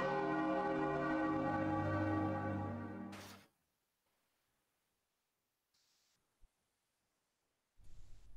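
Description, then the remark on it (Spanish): A single deep, resonant bell toll marking midnight rings out loudly with a rich humming overtone, sustains for about three seconds, then cuts off abruptly into near silence with a couple of faint noises. “Y sabéis que el reflejo del sonido de la campana marca la llegada de la medianoche.”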